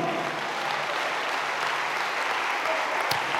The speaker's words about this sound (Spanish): Dale un aplauso al Señor, a su nombre, gloria.